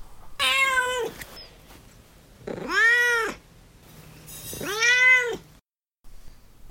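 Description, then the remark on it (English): A cat meows three times with short pauses between, each call a loud, drawn-out cry that rises and falls in pitch. There is no talking. “Although Duarte is real worked up, and he has been rudely chiming in out of turn.”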